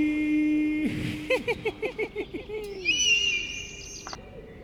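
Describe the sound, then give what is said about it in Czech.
A sound-effect eagle call from Emil the eagle, circling above a treetop: a quick run of six or seven sharp, yelping notes, then a thin, high, drawn-out whistle that fades away. “Povídá orel Emil, který kroužil nad korunou stromu.”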